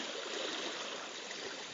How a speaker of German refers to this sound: Langsam schwappt die Lagune immer voller, weil wir haben einsetzende Flut.